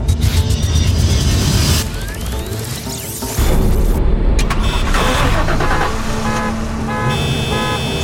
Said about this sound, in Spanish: ¡Cielos! Acabas de encender todos los autos en este estacionamiento. Y ahora los apagaré.